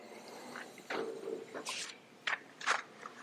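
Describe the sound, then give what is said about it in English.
A page being turned: several short, crisp papery swishes and rustles over a few seconds, fairly quiet, with no one speaking. “turning the page.”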